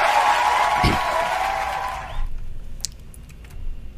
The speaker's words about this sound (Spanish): Un aplauso para el profe. Sí, un aplauso grandísimo.